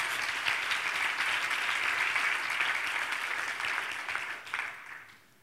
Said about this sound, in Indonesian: Berikan tepuk tangan bagi Tuhan kita.